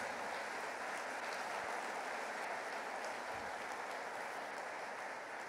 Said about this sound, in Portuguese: Quem crê que esse Deus está sobre a tua vida nessa manhã? Você pode dar um aplauso bem forte a Ele, queridos. Mais forte.